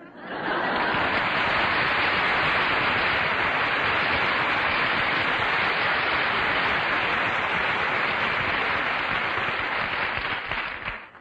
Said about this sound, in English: All that applause belongs to Ogden Nash.